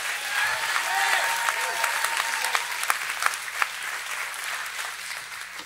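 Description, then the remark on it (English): A crowd claps steadily and densely for the Lord, with a few scattered shouts and whoops rising over the applause early on. It holds at a fairly even level for several seconds, with no talking. “Give a Lord a clap and a shout.”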